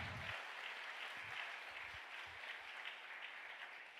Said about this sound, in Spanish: Vamos, darle el aplauso fuerte.